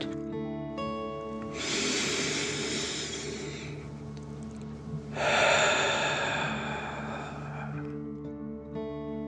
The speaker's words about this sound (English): Now, Let's take three more deep dragon breaths. Remember to breathe in through your nose, filling up your chest and belly, and then out, pretending you are breathing fire. Deep breath in and out.